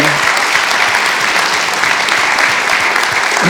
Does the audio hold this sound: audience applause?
yes